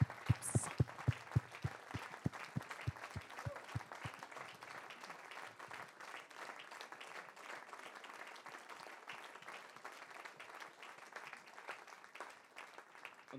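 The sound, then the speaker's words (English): An audience in a church breaks into steady applause to encourage its older brothers and sisters, opening with a few sharp, rhythmic claps before blending into a dense, sustained wash of clapping that holds at an even level to the end. “And I just want to give a hand of applause to encourage our older brethren and our older brothers and sisters.”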